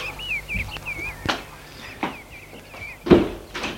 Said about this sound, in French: Il entre, elle a fermé la porte